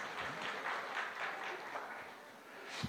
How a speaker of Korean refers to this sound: 예, 뭐 박수 쳐도 돼요 이런 건 그죠?